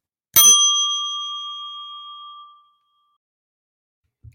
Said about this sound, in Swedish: Det är en oerhört välklingande klocka. Jag kan ha den längre bort nästa gång.